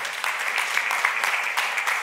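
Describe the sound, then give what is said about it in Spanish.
A crowd applauds steadily after a prayer, a strong round of applause offered to God as the King of Glory, a dense wash of many hands clapping at once with no pauses, holding a fairly even, moderately loud level throughout with no voices over it. “Denle un fuerte aplauso al Rey de la Gloria. Un fuerte aplauso, Señor.”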